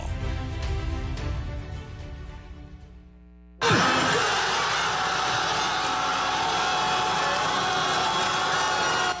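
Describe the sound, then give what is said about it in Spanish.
A short tonal music bed with deep low notes cuts abruptly to a loud, sustained roar of Ecuadorian football fans cheering and shouting together at their national team's first goal in the opening match of the 2022 World Cup in Qatar, holding steady at full volume until the end. “En medio de una explosión de júbilo celebraron los hinchas ecuatorianos el primer gol de su selección de fútbol en la apertura del Mundial de Qatar.”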